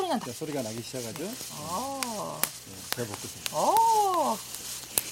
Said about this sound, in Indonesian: Kita harus menyangrai biji kopi di wajan yang sudah dipanaskan dengan mengandungnya.